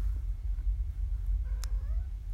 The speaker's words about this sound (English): And the cat's meowing at me. Yes, yes, Vera. What's wrong, Vera? Hmm?